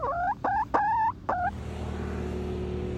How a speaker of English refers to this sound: I raised them this spring for six weeks in my kitchen in a bin to the dismay of my roommates. I'm really proud that I've kept them alive for this long with predators, and now they're full fledged chickens.